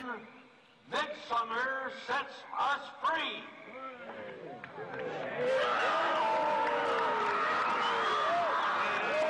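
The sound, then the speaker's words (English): A few scattered shouts and voices give way to a large crowd erupting into loud, sustained screaming and yelling as an effigy is set alight, many voices overlapping in a dense, continuous roar. “Just for a second, you'll hear the screams when they light the apparent effigy in a sec.”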